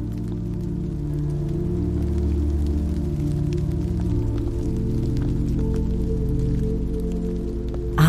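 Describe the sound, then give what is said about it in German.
Steady summer rain patters down on sun-warmed asphalt without pause, scattered drops ticking sharply over a continuous wash of water and a low, rumbling hum underneath. No voices are heard. “Spüre den erdigen, frischen Geruch von Regen auf warmem Asphalt.”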